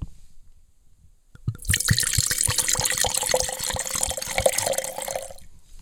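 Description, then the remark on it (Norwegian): After a brief silence, a second glass of a red wine newly arrived in Norway is poured: a steady, splashy gurgle with quick glugging pulses for about four seconds, then it stops. No one speaks. “Så nå må jeg ta glass nummer to.”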